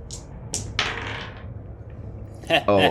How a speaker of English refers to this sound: my dice is rolled across the room.